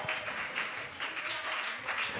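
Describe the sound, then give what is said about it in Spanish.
An audience in Alcalá de Henares applauds, a dense, steady wash of many hands clapping at once that holds for a couple of seconds with slight swells, no single claps standing out. “No le estoy pidiendo que me aplaude a mí, es que si ha creído lo que le he dicho, Dios puede trastornar esta ciudad y ponerla patas arriba.”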